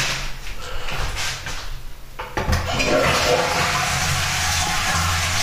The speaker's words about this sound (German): So, das war die Toilettenspülung.